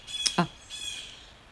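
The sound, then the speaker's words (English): A big crow gives a couple of harsh, loud caws in quick succession, followed by a faint raspy trailing call against light outdoor background noise. “There's a big loud crow, I think.”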